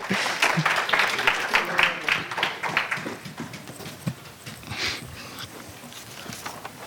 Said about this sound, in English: Are oh, you supposed to clap when they walk out. Yeah, yeah, yeah.